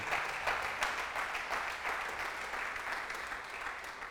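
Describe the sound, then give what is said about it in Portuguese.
An audience applauding the Lord in worship, a dense wash of many hands clapping at an even, sustained level for the whole stretch, with no voices standing out. “Você podia aplaudir a Ele, o Senhor está dentro de mim.”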